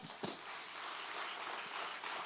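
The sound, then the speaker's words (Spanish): Steady applause from a Christian audience at a prayer service, a dense wash of clapping that holds at an even level throughout with no voices standing out. “Dese un aplauso.”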